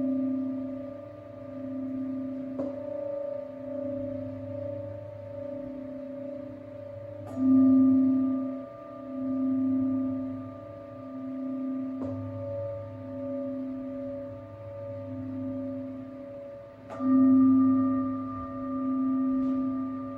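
A singing ring (singing bowl) rings with long, sustained resonant tones during a lying-down yoga meditation for relaxation, struck every few seconds so each new ring blooms over the lingering hum of the last, with a slow pulsing shimmer and no voices.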